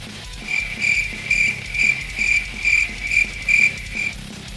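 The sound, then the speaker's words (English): Crickets chirping in a steady, regular rhythm, with about eight evenly spaced trilling bursts. The chirps are fairly loud, with no voices, over a low background hum. “Oh, those cricket noises are happening too often.”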